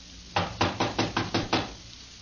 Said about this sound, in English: This is the room. Here. The door's locked, all right. Well, let's try knocking.